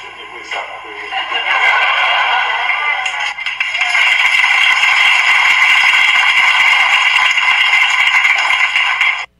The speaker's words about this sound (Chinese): 我我也不晓得现场的记者你们是怎么收音的，收音最清楚的是台下这个柯粉的鼓掌。